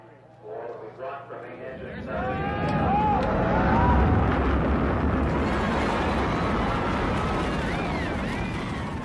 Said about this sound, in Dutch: Ja, daar gaat hij hoor. De lancering van de Columbia in 1981 met dus chips van AMD erin.